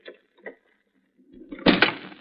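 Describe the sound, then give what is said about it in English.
A garage door rumbles shut, its low rolling scrape building to a heavy, solid thud, preceded by two faint light clicks. No one speaks. “Close the door”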